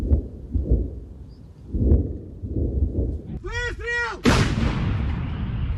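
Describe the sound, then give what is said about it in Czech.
Repeated heavy artillery fire thuds in quick succession at the front near Robotyne in Ukraine's Zaporizhzhia region, Russian fire answering Ukrainian positions; then a wavering whistle rises and falls before a loud blast rolls out and fades. “Ukrajinské pozice na frontě u Robotyne a mnohonásobné hřmění ruské odpovědi.”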